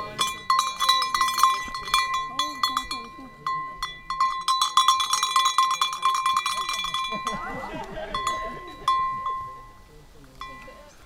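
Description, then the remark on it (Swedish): A bell clanks loudly and repeatedly, with rapid, irregular strikes ringing out for the whole stretch, briefly thinning out near the end before resuming. “Nu ringer du högt och tydligt.”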